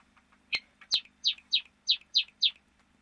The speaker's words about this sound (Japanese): 文鳥がね、今日は元気な感じの時間帯で喋っておりますので、まあまあ、お聞き苦しい可能性がございますが、気にせずいきましょう。